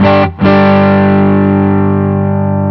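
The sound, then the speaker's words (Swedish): Distorted electric guitar on the neck pickup: a loud chord is struck, briefly cut, then struck again and left to ring with a thick, fairly dark tone, slowly fading. No talking. “Här är mitt mick. Och här är hals.”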